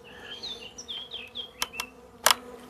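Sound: honeybees buzzing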